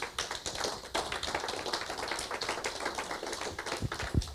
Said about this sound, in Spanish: ¿Cuántos dicen amén? Dale un aplauso pues a Dios.